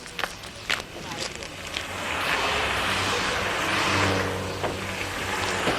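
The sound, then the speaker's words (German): A truck's engine rumbles and swells in loudness, a low steady drone that builds after a few quick taps, then holds at a heavy level before easing slightly. “Hinter den Lastwagen bleiben.”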